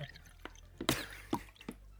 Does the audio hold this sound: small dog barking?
no